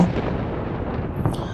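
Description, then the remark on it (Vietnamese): A deep, rolling thunder clap rumbles steadily for a moment amid wind by a river at dusk, loud and heavy with a dense low-end roar and no voices over it. “Lẫn trong tiếng gió xe sắt và tiếng sấm đi đùng”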